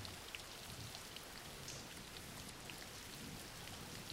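Steady rain pours down in a dense, even hiss with scattered drop ticks, constant, with no voices or other sounds.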